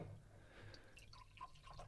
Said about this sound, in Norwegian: Jeg bare helle litt vann her.